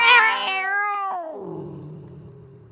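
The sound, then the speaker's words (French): A single long, drawn-out cat meow, loud, starting high and bright then sliding down into a lower, wavering yowl that trails off. No one speaks. “Il est tout simplement addict à l'herbe à chat. Ce fléau touche près de 51% de nos chats.”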